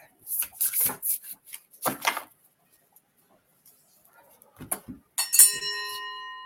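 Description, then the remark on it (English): A bright doorbell chime rings once near the end, its tones ringing out and fading slowly, after several scattered clattering bursts and a quiet pause. “Ding dong.”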